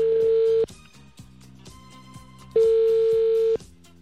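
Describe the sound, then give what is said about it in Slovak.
An outgoing phone call placed on air by Rádio Melody: two steady, mid-pitched ringing beeps, each about a second long with a pause between, heard over quiet background music. “Tak dúfajme, že zdvihne. Voláme.”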